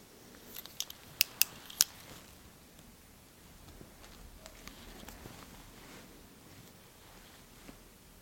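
scissors snipping

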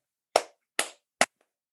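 hand clapping

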